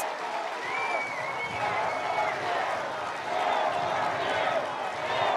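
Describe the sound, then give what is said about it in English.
A large crowd at a Trump rally roars and cheers steadily, chanting "four more years", a dense wash of many voices with shrill whistles cutting through now and then, loud and sustained throughout. “Amid the cheers, you can hear the crowd chant four more years.”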